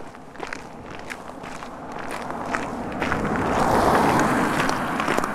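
Steady footsteps on an hour-long outdoor morning walk starting at six a.m., a regular crunch of strides at an easy pace over a continuous background rush that swells a little toward the end. No one speaks.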